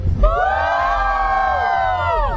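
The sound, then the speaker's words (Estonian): A group of children, Ranna Rancho two, the first-place winners of the reunion, cheers and shouts together on request in a loud, sustained burst of high-pitched, overlapping voices lasting a couple of seconds. “me oleme siit leidnud äh, kokkutuleku esimese koha võitjad Ranna Rancho kahe, tehke häält.”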